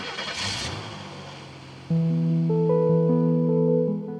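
A motorcycle engine revs up loudly for about two seconds, then gives way to a steady, sustained run of electronic tones that step between pitches. No voices.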